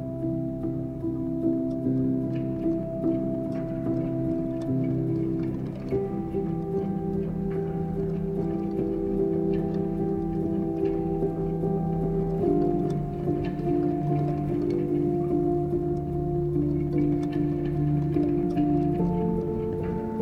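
A mellow song plays on its own as closing music, with warm sustained tones and layered low harmonies holding at a steady, moderate level throughout, with no voices.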